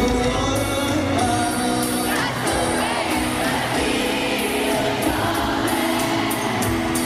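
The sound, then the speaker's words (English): A huge concert crowd roars and cheers nonstop, with shouts, yells and whoops piling into one loud, dense wall of sound that stays at full intensity for several seconds. “Oh, it was one of the loudest audiences I've ever heard at a concert in my life.”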